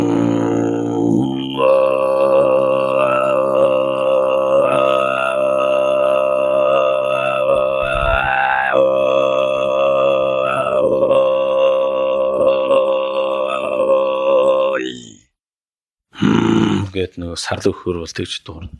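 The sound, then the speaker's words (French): A throat singer uses the deepest technique to imitate a yak's grunting cry: a long, deep, growling drone rich in overtones holds steady for about fifteen seconds, breaks off briefly, then returns in a shorter, rougher burst. “Par exemple le cri du du yak.”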